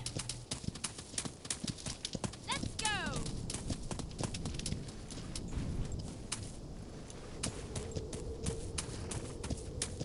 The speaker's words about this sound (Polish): Koń, koń idzie za nami.